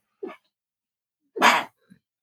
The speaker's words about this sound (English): That was fun. Gesundheit. And you know we don't edit shit, so that sneeze is gonna stay in there.